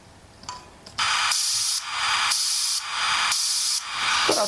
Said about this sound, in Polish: tylko taki szumek. No, słychać też, że ramki są nadawane co jakiś czas, nadajnik jest wyłączany i leci szumek trudno odróżnialny od szumu FM. Chociaż no, odróżnialny oczywiście.